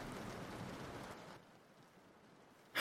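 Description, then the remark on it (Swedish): Steady rain hiss falling outside fills the first second or so, then softens to a quieter, even patter before a brief louder burst right at the end. No voices are heard. “Um, en sån snygg man ska väl inte stå här ute i regnet och frysa?”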